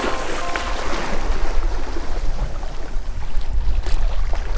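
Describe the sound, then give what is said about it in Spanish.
Ocean waves wash steadily against the coast in a continuous, fairly loud roar with a deep low rumble and some wind noise, with no voices. “El capítulo de hoy comienza en la costa, frente al mar.”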